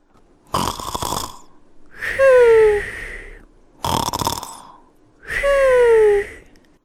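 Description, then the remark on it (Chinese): Two loud snoring cycles from the koala mother, each a rough, rasping inhale followed by a longer, droning exhale with a falling tonal whistle, in a slow, even rhythm with no talking. “听着考拉妈妈的打呼声，啊啊！”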